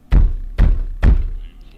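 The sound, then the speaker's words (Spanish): Three heavy knocks on a door in a dramatization of the story El cementerio triste de la margen izquierda, evenly spaced about half a second apart, each a deep, loud thud with a short ringing decay and no voices. “Y fijaos, en el caso de El cementerio triste de la margen izquierda, en la dramatización de Diego había unos golpes.”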